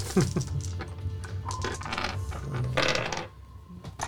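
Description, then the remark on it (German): A handful of dice clatter and tumble across a surface in a quick burst of rattling clicks, fairly loud, with no voices. “Okay, dann würfelst du 10 gegen meine 3.”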